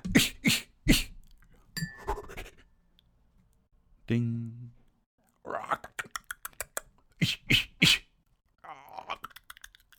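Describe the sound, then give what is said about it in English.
A voice imitates a bird of paradise flapping an umbrella: clusters of sharp, crisp clicks and whooshing bursts, one short buzzy held tone, and a couple of spoken words between them. “Some impression of a Bird of Paradise flapping a, an umbrella.”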